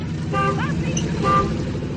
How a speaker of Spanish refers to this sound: Hasta que el bocinazo de la camioneta del padre Hurtado los invitaba a abandonar el juego